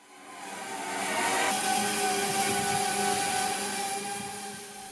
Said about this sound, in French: C'est un drone de livraison. Il s'approche d'un jardin et fait descendre un câble auquel est accroché le colis.